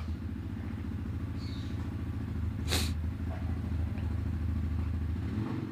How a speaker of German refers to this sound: Was schauen wir mal, was das überhaupt für ein Auto ist. Ach, so ein Quad, ey. So Quad, ey.